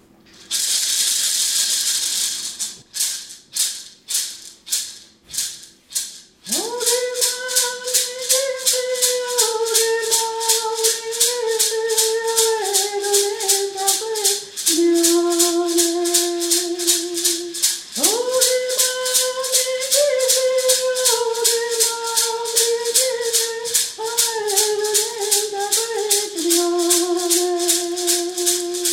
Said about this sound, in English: So we really honor that eagle. So this song is called Okemau Megisu. It means the great eagle.